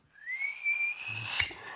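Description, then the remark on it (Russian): A person whistles to imitate the wild whistle of a landmine clicking underfoot after stepping out of a trench near a minefield: one shrill tone that slides upward and holds steady for over a second, with a short sharp click near the end. “Э, я в жуткой депрессии с воспалением легких, вылажу из окопа, делаю три шага назад с телефоном в руке, клац под ногой и дикий и свист.”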